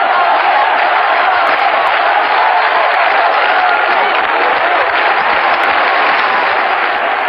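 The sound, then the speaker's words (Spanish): A large crowd chants the name "Dolores" for Dolores Ibárruri, La Pasionaria, president of the Communist Party of Spain, a loud, dense roar of many voices that holds steady without a break, with cheering mixed in throughout. “Dolores, Dolores, gritan.”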